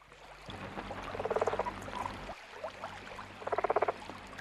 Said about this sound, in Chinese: 一只青蛙从水中跃起，落在一片浮在水面的荷叶上，然后它又跳到一片已经脱离水面的荷叶上，再从这片荷叶上跳到一片亭亭玉立的荷叶上。